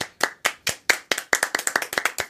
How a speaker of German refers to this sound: Da kann man schon mal klatschen. Kann man schon mal klatschen.